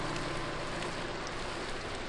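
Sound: cold rain falling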